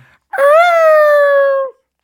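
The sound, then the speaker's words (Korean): A voice imitates a police car siren with one sustained, loud wail that rises briefly, then glides slowly downward in pitch before cutting off, lasting just over a second. “옛날 같으면 이제 경찰차가 네.”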